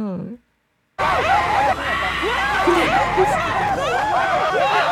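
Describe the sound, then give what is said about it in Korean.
A crowd of people screams and shouts at once while fleeing zombies that rush at them, in a game of removing letters stuck on the zombies' bodies; overlapping frantic yelps and cries stay loud and chaotic after a brief voice and a moment of silence at the start. “좀비들이 막 달려드니까 막 도망가면서 막 소리 지르면서 막 도망가.”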